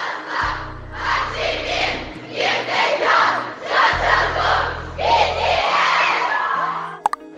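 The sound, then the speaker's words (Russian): A crowd of fans shouts a fan chant together at the entrance to a cinema, in loud, rhythmic bursts, voices rising and falling in unison over a low rumbling hum, with a couple of sharp clicks at the end. “Потому что атмосфера даже вне зала, она такая да, они кричали фанчарт на входе в кинотеатр.”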